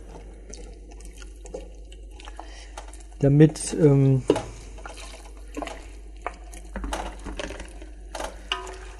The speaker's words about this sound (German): Ja, Milch und so kommt erst später rein. Also nicht, nicht direkt. Das wird jetzt erstmal nur mit Sahne äh, nur mit Wasser bzw. mit Brühe aufgefüllt,